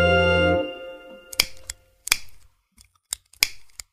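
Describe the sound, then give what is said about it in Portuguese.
A brief steady humming tone fades out, then a cigarette lighter is flicked repeatedly to light a cigarette: about seven sharp, irregular clicks with short scratchy rasps, with no talking. “Caralho, um isqueiro?”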